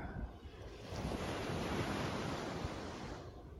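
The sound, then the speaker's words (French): Steady ocean surf washes onto the shore, a broad continuous roar with gentle swells in loudness, soothing, with a faint breath of wind and no voices. “Et vous pouvez aussi vous laisser porter par le son des vagues, apaisant”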